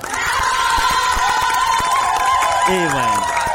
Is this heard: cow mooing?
no